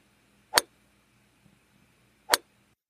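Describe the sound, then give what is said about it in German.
Two crisp, sharp golf ball strikes, spaced nearly two seconds apart, each a clean click standing out against a faint, quiet background murmur. “Und ein Tiger war in dieser Sportart mal ganz gut. Golf.”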